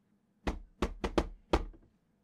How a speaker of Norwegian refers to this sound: Kan du fullføre denne bankelyden her, sier Geir, mens han banker en rytme.